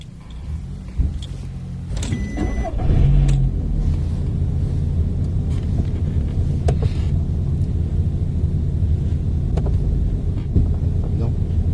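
The ignition is switched on and a car engine turns over and catches a couple of seconds in, then settles into a steady, low idling rumble with occasional faint clicks and rattles.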